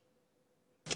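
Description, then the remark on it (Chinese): After near silence, a vervet monkey alarm call, the warning given on seeing a snake, bursts in at the very end: one abrupt, loud, harsh and noisy chirp lasting only a fraction of a second. “如果看到的是蛇，那么警告声音是这样的，”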